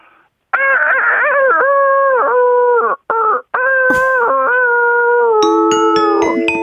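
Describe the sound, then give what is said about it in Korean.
A person imitates a rooster that is worn out in the evening, crowing in a long, drawn-out, sagging voice that sounds weary, with two brief breaks, then trails off into wavering, strained notes. Loud, no other sounds. “이제 지쳐서 우는 닭인데요.”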